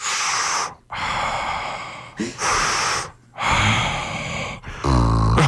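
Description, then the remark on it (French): A woman's voice imitates a fart inside a spacesuit with four loud, breathy blown bursts separated by short pauses, the last one turning into a low, buzzy, sputtering tone. “Elle, elle a fait un bruit de pète dans la combinaison spatiale.”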